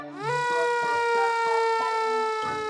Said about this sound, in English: a bright red fire engine who has a siren that sounds like this.